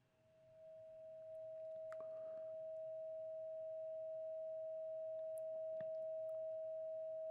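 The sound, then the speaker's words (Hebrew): A steady, pure electronic tone hums continuously at a single pitch, starting softly and quickly settling at constant loudness, with only faint background noise and a couple of tiny clicks. “גל סינוס בתדר 639 הרץ.”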